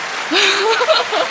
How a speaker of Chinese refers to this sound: 哎，我有一个鼓掌音效，让我用一下。